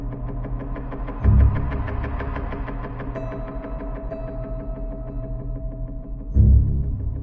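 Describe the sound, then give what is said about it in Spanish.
A Cadillac, a pickup truck and another car roll by on a street, their engines rumbling steadily with a throbbing low drone and two louder swells as the vehicles pass. “Por la calle pasan el Cadillac, la camioneta y otro coche.”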